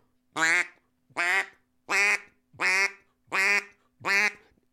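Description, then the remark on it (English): Six evenly spaced, loud quacks from a handheld duck call blown with the hand held steady, each a short nasal burst with a steady, even tone and no talking between them. “Or if I keep my hand steady, it's a completely different quack.”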